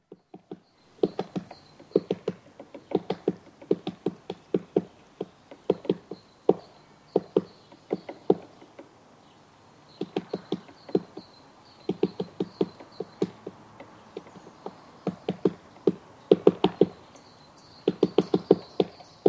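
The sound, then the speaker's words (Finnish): A great spotted woodpecker taps on a standing dead tree in January, in irregular clusters of sharp knocks with short pauses between bursts. A faint steady high tone lingers in the quiet background. “Tässä käpytikka koputtelee kelopuuta.”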